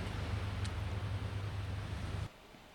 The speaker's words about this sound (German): Was für ein Meeresrauschen im Hintergrund.